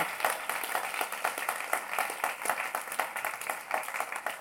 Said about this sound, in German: Und ich möchte das einfach mal sagen ihr habt gute Musik, ihr habt, ja genau, gebt doch einen Applaus, ich finde es wirklich cool, was ihr macht.